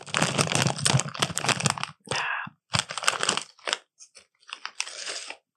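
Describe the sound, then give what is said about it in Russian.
Loud crunching of potato chips in dense bursts, mixed with crinkly rustling of a snack bag, then shorter scattered crunches and crinkles toward the end. No one speaks. “Чипсы. Да, хорошо, пойдет с пивком.”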